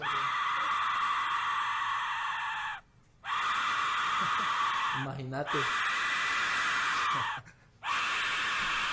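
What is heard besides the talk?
aztec death whistle shrieking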